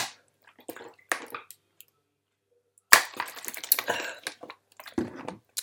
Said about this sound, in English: Let me just have a sip of water, first of all.